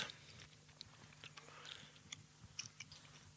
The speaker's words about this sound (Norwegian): Så skal det inn med tyggis.